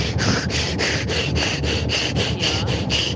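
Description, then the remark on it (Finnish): Loud hand sawing through a wooden log, a quick steady rhythm of about a dozen rasping strokes back and forth with no voices. No distinct thud of a piece dropping stands out. “kun me soitettiin tämä niin ensimmäisen kerran, niin me ei käsitelty tota niin kuin napsahdusta lopussa, niin onko se se, kun se puu tippuu siitä maahan siitä tukilta, missä sahataan.”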